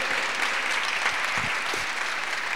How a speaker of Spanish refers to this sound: Yo le daría un aplauso a nuestro Señor. Es para Él.